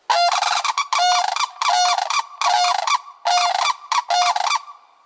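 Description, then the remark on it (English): A pair of sandhill cranes call in a courtship duet on the Arctic tundra in summer, loud, rattling bugle-like cries in rapid repeated bursts, overlapping, with no voices present. “Finally, from the surrounding tundra, a pair of sandhill cranes duet.”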